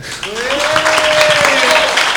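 Steady, loud applause from an audience for a new member of the Bolso of Steel Hall of Fame, a dense crackle of clapping with a whistle-like tone sweeping across it, swelling in after a brief quiet start.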